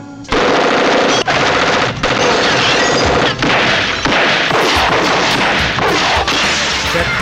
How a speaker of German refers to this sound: Verdammter Mist! Offenbar konnten sich dort drüben nicht über den Preis des Kanarienvogels einigen und nun haben die alle plötzlich angefangen, um sich zu schießen. Wahnsinn, wie die sich hier gerade bekriegen.